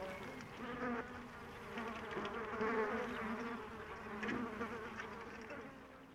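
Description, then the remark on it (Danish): A dense, steady drone of many flies buzzing together inside a cage, continuous, with the hum rising and falling slightly as individual insects move around. “Det var nemlig skide spændende, fordi der var en, der havde lavet et, et bur, hvor de var inde i, de der fluer.”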